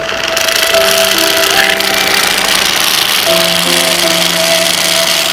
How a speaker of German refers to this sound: Ja, das Ganze natürlich einmal gut schütteln und dann natürlich in den Mixer.